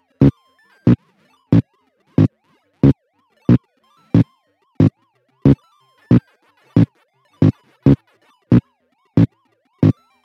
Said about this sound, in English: Then, of course, you have that wonderful bass thumping sound of the invaders themselves.